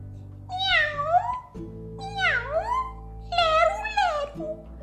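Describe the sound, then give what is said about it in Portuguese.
A cat meows three times in a row, drawn-out, each cry rising and falling in pitch, over a steady low hum of background music. “Você é feio, dizia o gato.”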